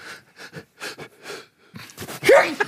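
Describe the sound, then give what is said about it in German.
A series of short, breathy puffs and wheezy inhales builds up, then ends in one loud, sharp sneeze with a rising vocal tone, heard alone without any talking. “Gesundheit.”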